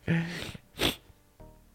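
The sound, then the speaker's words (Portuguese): A single sneeze up close: a rising voiced catch of breath, then a sharp, bright burst of air, followed by quiet shuffling. “Olhar para a lâmpada estimula o espirro.”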